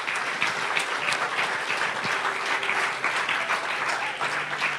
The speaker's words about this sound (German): Kleinen Applaus würde ich mal sagen. Applaus